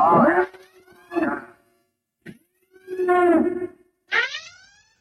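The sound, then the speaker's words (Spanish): A loud, electronic alarm siren sound effect, played as a spoiler warning, with rising and falling wails over a steady tone, sounding in several short bursts separated by brief gaps. “Bueno, ya sonaron las alarmas, eso significa que a partir de este instante eh, usted tiene que tener cuidado justamente con lo que vamos a decir.”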